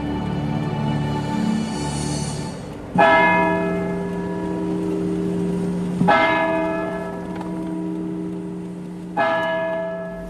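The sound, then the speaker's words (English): A church bell rings the Angelus at 6 o'clock, broadcast on Midwest Radio: slow, single loud tolls about three seconds apart, each a rich, humming metallic tone that lingers and overlaps the next, with no voices. “The time is 6 o'clock. Time to pause for the Angelus.”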